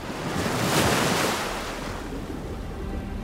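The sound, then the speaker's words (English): Rough sea waves at night, during a dangerous voyage by boat to the New World, crash and surge in a broad, noisy roar that swells early and then settles into a steady wash, with some wind buffeting underneath and no voices. “One night the seas were very rough during this dangerous trip.”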